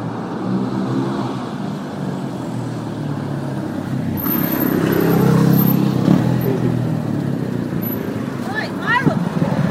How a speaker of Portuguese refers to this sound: Agora em um minuto a gente já tem que ficar de olho para ver quando o carro encostar aqui.